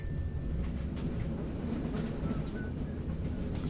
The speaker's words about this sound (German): Ein Zug. Aber was für ein Zug?